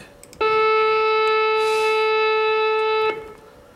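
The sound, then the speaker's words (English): A single note from a real saxophone, recorded earlier, held steady for nearly three seconds. It is loud and bright with a rich, buzzy tone, starting abruptly and cutting off cleanly, with no voices or other sounds. “Here I've got the sound of a real sax we recorded earlier, and uh -huh.”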